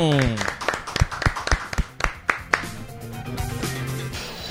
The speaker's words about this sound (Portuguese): Eu já começo pedindo uma salva de palmas. O aniversariante do dia,